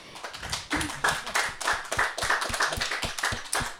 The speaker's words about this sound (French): Bah déjà, on peut vous applaudir pour ce travail.